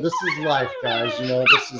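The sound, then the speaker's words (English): Puppies whimper and let out a sharp yip or bark as they run around, mixed in beneath a man talking, with a brief louder squeal near the end. “Our new puppies are here with us, and uh, they're, they're running around acting crazy, so you might hear them as they are talking right now.”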